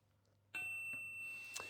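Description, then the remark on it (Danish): A text message notification: a bright electronic chime sounds suddenly, its clear tones ringing on and sustaining while a couple of quick soft taps follow, with no one speaking. “Så kommer der en sms.”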